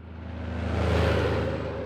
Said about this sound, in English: Back at the Tyson plant in western Kansas, a steady stream of trucks carry cattle in and meat out.